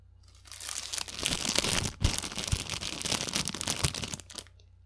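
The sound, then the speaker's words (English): Steady crinkling of cellophane being scrunched and worked by hand, a dense crackling texture with a few sharper pops, lasting about four seconds before fading out. The cellophane is one of five materials used to make a campfire sound effect. “The five items that went into creating this sound were sandpaper, a wooden chopstick, human breath, cellophane, and bubble wrap.”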